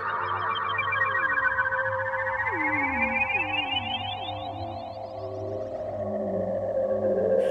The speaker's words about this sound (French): les films des années 50 de science-fiction, c'était toujours des espèces de synthés, des ondes, et quand il y avait des soucoupes volantes, des sons pas du tout réalistes.